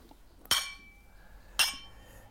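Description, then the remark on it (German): Two bright glass clinks about a second apart in a toast, sharp, each with a short ringing tail, over a quiet background with no talking. “Gut, so einen kleinen zum Abschluss. Also ich würde mich sehr freuen, Herr Just, für Sie arbeiten zu dürfen. Ja, äh, zum Wohl.”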